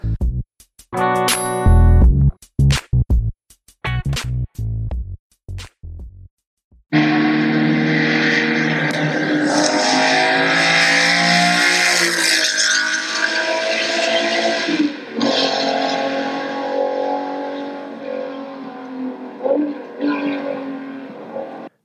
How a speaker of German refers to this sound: damit das Ding dir gehört, was du gerade gehört hast. Nämlich einen Ferrari 250 GTO Berlinetta.